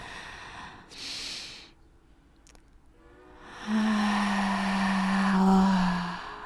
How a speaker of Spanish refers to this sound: Mm, siente gratitud a esta respiración que te aporta renovación, vida y energía en cada momento, cada día. Mm, inhala profundo y despacio, suelta por la boca